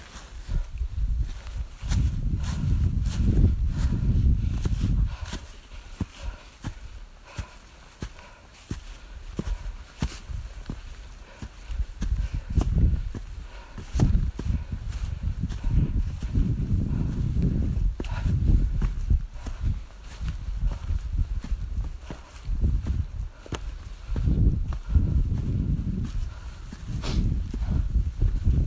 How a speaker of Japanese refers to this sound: 豊川市の本宮山を登った時の音です普段は週末午前中に登りますがこの日はお正月モードで朝寝坊お昼近くから登り始めました山登りの音ね、えー、お正月明け快晴で登山者の方も多く気持ちのいい登山となりましたうん正月からいいですねちょっと息が上がって途中鼻水すすってみたいな